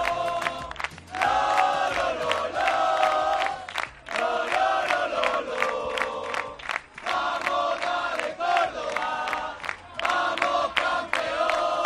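Nearly 200 visiting Córdoba football supporters chant loudly and in unison at a stadium match, repeating sustained sung phrases separated by brief breaths, with a full stadium sound and no speech over it.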